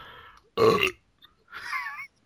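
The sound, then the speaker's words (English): A loud, guttural beer belch bursts out, followed a moment later by a second, softer, drawn-out sound. “Stop the beer belches.”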